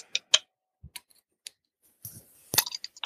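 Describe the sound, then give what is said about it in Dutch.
A beer bottle being opened: several sharp metallic clicks and clinks spaced apart, then a louder pop followed by a short fizzy hiss and a few more small clicks. “zullen we hem dan maar eh, gaan openen? Ik heb ja, hier een halve liter.”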